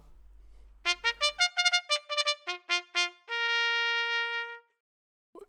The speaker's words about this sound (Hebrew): יש הרבה סוגים של עממים. אה, יש את העמם הזה שמתכתי וישר, ולכן קוראים לו straight mute, הוא נשמע ככה.